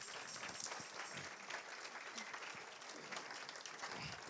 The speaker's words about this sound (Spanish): Que pase primero el árbol de Navidad. Y cuando esté entrando por ahí, usted le da un aplauso a ese, árbol de Navidad.